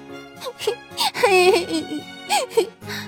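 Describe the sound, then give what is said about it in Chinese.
In a children's story, a high voice imitates a small bird's whimpering, sobbing cry: three wavering, moaning bursts with gliding pitch and short catches of breath, moderately loud, with music faintly underneath. “皮皮和小伙伴们在草地上踢足球，突然听到呜呜的哭泣声。咦，是谁在哭呢？”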